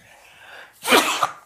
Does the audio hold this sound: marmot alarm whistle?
no